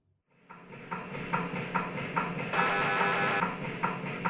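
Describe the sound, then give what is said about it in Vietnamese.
An MRI scanner running loudly, as heard lying inside its big plastic tube: a harsh, continuous mechanical buzz with rhythmic thumping pulses about twice a second, starting abruptly and staying steady throughout, with no voices. “Cái ống này kêu rất là to, to như tiếng xe ở bãi rác ấy.”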